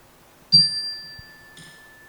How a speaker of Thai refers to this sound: เห็นไหมพอระฆังดังจิตมันจะว้าวเห็นไหมดูมันดีๆพอจิตดังพวกมันจิตมันจะว้าว